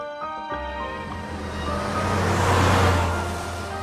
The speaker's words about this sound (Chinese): 汽车穿过山口就下坡，沿着一条小柏油路蜿蜒到了湖边